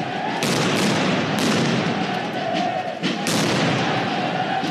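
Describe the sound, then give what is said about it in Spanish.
Loud firecrackers burst several times over a dense, continuous roar of noise, with sharp cracks spaced a second or two apart, chaotic. Protesters are throwing firecrackers and stones at a military installation and tearing down its perimeter fence railings. “Lanzaron petardos, piedras, derribaron las rejas de la barda perimetral, mientras los uniformados permanecían tras los escudos, soportando una lluvia de proyectiles y explosivos.”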